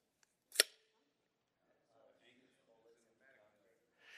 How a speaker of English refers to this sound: You know, you know I, I don't really know exactly what to call it. Like, there's no easy way to, to refer to this thing. Uh, the way they refer to it on, uh, you know, on Lowe's is it's a low velocity powder actuated fastener.